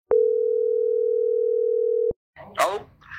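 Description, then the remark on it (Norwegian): A steady, loud telephone tone, heard while calling a middleman, holds for about two seconds and cuts off abruptly, followed by a person starting to speak. “Så jeg tenker vi skal ringe til han, og så prøve å få tak i han uh, som var med til Paris.”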